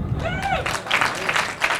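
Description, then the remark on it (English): A crowd at a church breaks into steady applause, a dense wash of overlapping claps at moderate loudness, with a brief voice or whoop rising above it at the start. “Need claps.”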